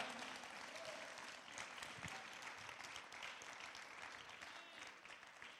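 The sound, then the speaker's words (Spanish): Sustained applause from a church audience during a morning sermon, given for Jesus: a dense continuous clatter of many hands clapping at steady volume for several seconds without a break. “Vamos, den un aplauso fuerte a Jesús esta mañana.”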